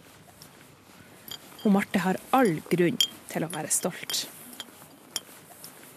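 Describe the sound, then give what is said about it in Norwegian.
Light metallic clinks of a bronze medal tapping against a skijoring medal, scattered before and after a short stretch of speech, with a few soft clicks continuing quietly underneath the voice. “Det er lyden av en bronsemedalje mot en skiførmedalje.”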